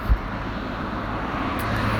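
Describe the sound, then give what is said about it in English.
Steady, fairly loud roar of traffic moving along a busy main road, a continuous low rumble with no distinct breaks and no voices. “I've got road and cars to the left, and load of sort of shrubbery and wild hedging to the right.”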